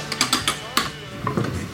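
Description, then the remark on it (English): A barber chair's mechanism ratchets with a quick run of sharp metallic clicks, followed by a quieter grinding rattle as the movement settles. “That's the sound of the engineering of, uh, of the great father chair”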